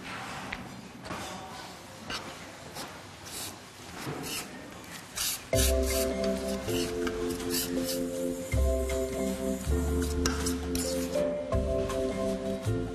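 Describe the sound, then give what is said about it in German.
Soft wet squishing and scraping as fine lead-containing pigment powder is quickly bound with water and painting oil, irregular, before steady music takes over partway through. “muss Daniela sie möglichst schnell binden. Das macht sie mit Wasser und Malöl.”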